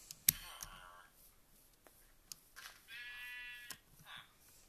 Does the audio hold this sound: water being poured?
no